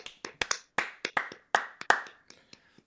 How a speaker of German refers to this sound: Also, kurzer Applaus.